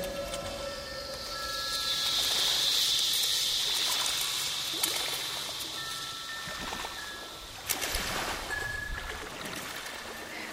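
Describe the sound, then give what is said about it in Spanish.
A steady, soft rush of flowing water from the Santa María Yocavil river, which rises near the border of Catamarca and Salta, fills the scene. It is a continuous hiss with no speech, swelling slightly in the middle and carrying faint higher chirps over it. “Río de ríos, el Santa María Yocabil bebe de las aguas del río Chucha, del afluente del río La Piedra, del río de Tomás, del río Cerro Negro.”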